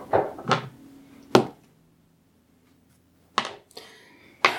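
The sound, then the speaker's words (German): An eight-sided die and a smaller six-sided die, rolled by a game master against a player during a game, clatter and knock against a hard tabletop in several short, sharp bursts with a quiet pause in the middle, landing on 4 and 2. The sound is fairly loud, with no voices. “Offenbar würfelt der Spielleiter gegen den Spieler.”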